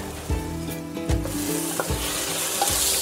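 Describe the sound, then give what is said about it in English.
Chicken seasoned with salt and dhansak masala sizzles steadily after being added to a hot pan of masala, with a dense crackling hiss throughout, while a utensil stirs and scrapes it in several low thumping strokes. No one speaks. “I have some chicken here now finally you're going to finally. add the chicken.”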